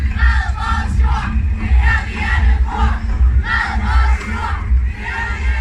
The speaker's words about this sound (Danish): Og vi har jo så nogle af vores venner, der bare råber hele altså fronten op. Og det der med at gå og ligesom synge eller råbe de der kampråb, ja, det, det er bare helt magisk. Og vi brænder vores stemmelæber af.